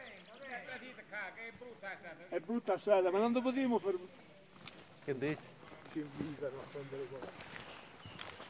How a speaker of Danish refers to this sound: Nogle forfaldne træbygninger dukker op på højre side af grusvejen. Man kan høre højlytte stemmer. Det lyder som en fest. Det er skovarbejdere. Så snart vi bliver opdaget, kalder de på os.